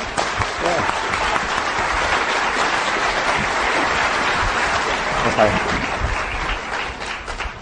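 An audience at a training session breaks into steady, sustained applause for a person called to the front, a dense wash of clapping that stays loud and even for several seconds before tapering slightly at the end.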